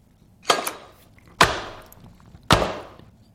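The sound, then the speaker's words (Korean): Three heavy cleaver chops as chicken is prepared on a board, about a second apart, each a sharp thwack with a short ringing tail, loud with no talking. “닭고기 손질하는 소리입니다.”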